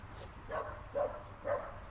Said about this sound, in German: Ich guck, und jetzt kommt da der Dackel und schreit.